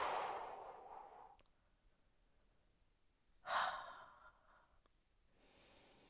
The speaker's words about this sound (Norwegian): Hold pusten. Og pust ut.